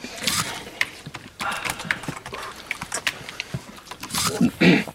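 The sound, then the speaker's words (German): Heavy breathing of a radio speaker right into a microphone: rough, rasping inhales and exhales in irregular bursts, with a few snorty, grunting sounds toward the end and no speech. “Gut, es gibt Menschen, wenn sie das hören, dann sind sie wirklich extrem genervt davon, dieses Atmen, diese Geräusche, die dabei entstehen.”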